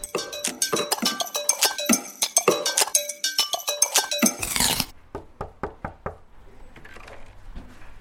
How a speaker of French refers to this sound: Je viens de monter quelques escaliers dans le bureau de Gaston Meunier